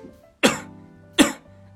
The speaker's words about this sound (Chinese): 咳嗽是瞬间通过横膈膜瞬间爆发推力量给肺部，然后让肺部呢把气管里的呃杂质吐出去。